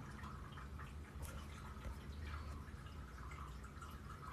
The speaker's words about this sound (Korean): 저 물소리는 우리 쿠키 물 먹는 거 있잖아요. 그거 순환 깨끗하게 순환되는 소리예요. 자동 그 물 이렇게 쇼르르 하는 거 있잖아요. 그거예요.